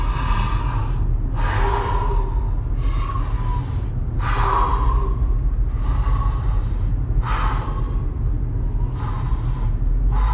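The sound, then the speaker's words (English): A series of deep, audible breaths drawn in through the mouth, about five in a slow steady rhythm, fairly loud over a constant low rumble, with no talking. “There's a guy called Wim Hof, and he just says, uh, "I'll beep this out," but his thing is, "There is no right way. Just breathe, motherfucker."”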